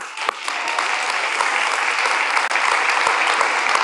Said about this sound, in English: There's like three of you clapping. It's funny when you ask for money.